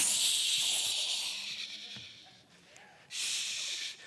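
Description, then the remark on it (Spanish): A voice imitates a shaken Coca-Cola bottle fizzing open: a loud, airy hiss that slowly trails off, then a second sharp burst of hissing near the end, unaccompanied by speech. “Los vengo a agarrar así como una Coca-Cola y, para que el Espíritu Santo los destape”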